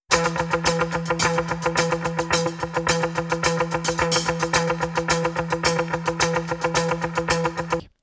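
A driving electric guitar riff plays alone: fast, evenly pulsing chugs on a steady repeated note, with effects and echo, staying loud and relentless throughout with no voices.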